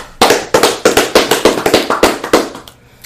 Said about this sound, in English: Clap it up for them.